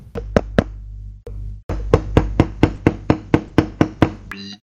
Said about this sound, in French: Non, C'est toc toc toc à la porte tout fait.